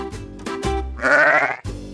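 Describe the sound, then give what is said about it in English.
An alpaca lets out a loud, quavering bleating call, clear, lasting about half a second after a few shorter, lower vocal sounds. “alpaca is an animal that's kind of like a mix between a horse, a camel, and a sheep.”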